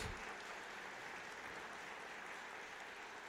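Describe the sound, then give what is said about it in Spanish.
A crowd claps steadily together as applause to God, a dense, continuous wash of many hands at an even, loud level for a few seconds with no voices over it. “¿Le puede dar palmas a Dios, hermano, porque creemos en eso?”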